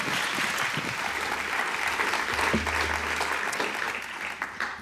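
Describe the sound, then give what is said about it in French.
An audience at a conference claps steadily throughout to welcome the speaker, a dense, even wash of many hands with no pauses, fairly loud and sustained for the whole stretch, with no voices standing out. “Merci beaucoup de l'applaudir.”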